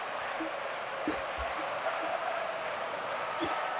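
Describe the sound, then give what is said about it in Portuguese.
A large stadium crowd of 23,000 Espanyol fans at their home football match roars steadily, a dense, continuous wash of cheering voices that holds an even loudness throughout, with a few faint thumps poking through. “a torcida do espanhol, faz festa na sua casa. 23 mil pessoas torcendo pelo espanhol.”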